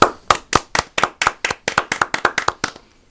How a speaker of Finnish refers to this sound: Jos siltä tuntuu, niin tervetuloa taputtamaan.